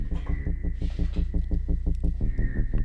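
A loud, steady rap instrumental with heavy throbbing bass, punchy rhythmic beats repeating several times a second and a sustained high tone running over it, no voices.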